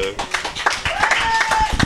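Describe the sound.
A crowd applauds steadily, standing up, with dense overlapping claps and some voices calling out underneath, for a brief burst of welcome as a guest arrives.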